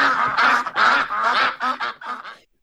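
A duck quacks loudly and rapidly as a segment sound effect, about eight or nine nasal, raspy calls in a quick uneven run, with no talking, then the calls cut off into silence.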